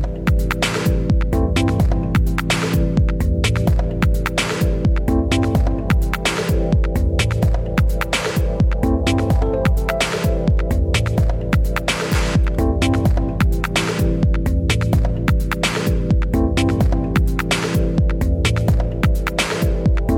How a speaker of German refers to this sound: Im Hintergrund hören wir nochmal einen weiteren Mix von …